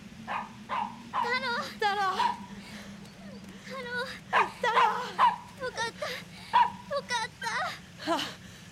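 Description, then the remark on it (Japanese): A dog, Taro, barks and yips fiercely and repeatedly at a van in a roadside pull-off beside a mountain road, in short, irregular bursts, some high and whining, over a steady low hum in the background. “見ると山道の脇の車の待避所に太郎がいましたお兄ちゃん太郎は一台のワゴン車を見て激しく吠えていました”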